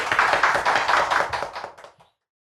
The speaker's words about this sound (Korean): 다시 한번 큰 박수 드립니다. 고맙습니다. 고맙습니다.